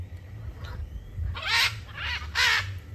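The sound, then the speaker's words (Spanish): Harsh, raspy bird squawks burst out in three quick rounds, loud, like birds bickering, over a low rumbling background hum. “Hay celos entre los pájaros también.”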